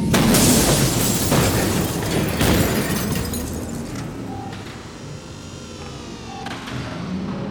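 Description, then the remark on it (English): A spaceship crashes through the window of Braddock's bar: a loud crash bursts in with breaking glass and a heavy rumbling roar, then scattered clatters and debris tinkling as the noise slowly settles into a lingering low hum. “Emmett's rant was cut short by a spaceship crashing through the window.”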